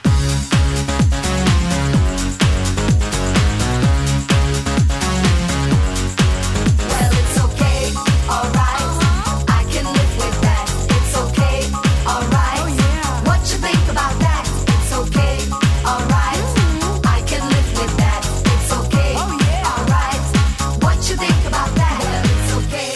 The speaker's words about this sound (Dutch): laten we eerst even luisteren naar het meest opzwepende Belgische nummer op Spotify